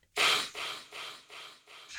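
A loud, forceful nasal sniff, trying to clear glitter from the nose, followed by several more airy sniffs in a steady rhythm, each one a sharp rush of breath with no talking.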